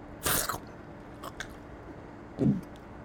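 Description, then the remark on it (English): Someone chewing gum: a crackly, sharp bite sound at the start, a few faint moist clicks, then a soft, low squishy smack, with no talking. “You want a piece of bright gum?”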